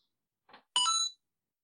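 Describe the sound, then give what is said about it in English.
A quiz buzzer sound effect: a soft brief rustle, then a single bright, ringing electronic tone lasting under half a second, heard on its own with no talking. “what's your buzzer?”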